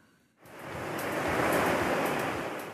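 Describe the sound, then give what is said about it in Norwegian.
Soft, lazy ocean swells wash onto a chalk-white beach with clear, warm water after a brief quiet start, a broad steady hiss swelling gently and easing slightly, with no voices present. “Dovne dønninger mot kritthvit strand, strender i verdenstoppen, vannet klart og varmt, solfaktoren er høy, prisene lave og turistene få.”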